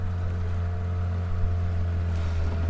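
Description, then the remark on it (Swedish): A long boat's engine putters steadily as it heads out from the shore on Lake Turkana under blazing sun, taking a fisherman out to check his nets; a low droning hum with strong harmonic tones, running continuously without pause and no voices present. “Solen gassar när den långa båten puttrar ut från stranden.”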